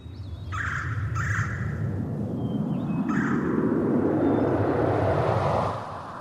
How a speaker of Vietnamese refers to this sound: Có lẽ nhờ thế, khi tới căn phòng này, ta có cảm giác như đang lạc vào cõi thanh bình với tiếng chim ca, gió hát.